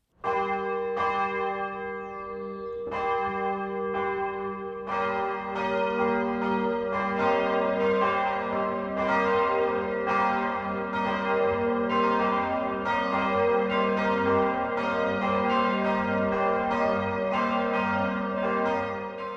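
The 12 o'clock midday bells of the 300-year-old church in Petersbuch, a village in the Eichstätt district of Upper Bavaria, Germany, ring steadily. Several bells overlap in a dense, sustained peal with rich ringing overtones, and the strikes repeat throughout without any voices.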